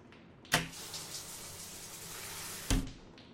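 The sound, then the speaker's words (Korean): A bathroom door opens with a sharp clack, a hushed airy stretch follows, then it is quickly shut with a second solid thud. Both impacts are fairly loud, and no one speaks. “나는 욕실 문을 열었다.”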